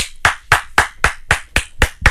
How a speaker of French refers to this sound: Moi, j'applaudis à tout rompre ça. Bravo.